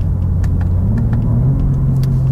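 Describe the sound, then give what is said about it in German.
An M2 sports car's exhaust burbles on downshifting or lifting off the throttle: a loud, steady low engine rumble broken by several scattered sharp pops and crackles. “Beim Runterschalten oder vom Gas gehen gibt es so ein Auspuffbrabbeln.”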